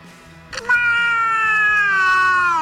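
A cat lets out one long, drawn-out meow that starts around half a second in and holds steady, loud, slowly falling in pitch until the end.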